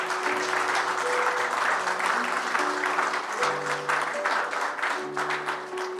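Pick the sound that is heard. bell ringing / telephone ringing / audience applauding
audience applauding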